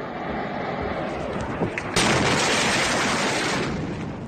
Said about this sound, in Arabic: بنشوف سحابة مهولة هالمرة متلفزة بالألوان بعد انفجار مدوي في مرفأ بيروت